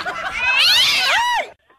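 A single drawn-out cat meow, loud, rising then bending down in pitch over about a second and a half before cutting off to near silence.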